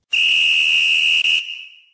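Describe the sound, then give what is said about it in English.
A single loud, shrill whistle blast held steady for over a second, with a brief flutter near the end before it cuts off and fades into a short ringing tail. “You give the premise, you lead to, it up, and yeah, you tell me when to hit the whistle.”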